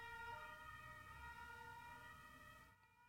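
A wailing emergency siren, first taken for an ambulance and then for police, sounds from the street below, steady and fairly prominent over low street rumble, fading slightly toward the end as it passes.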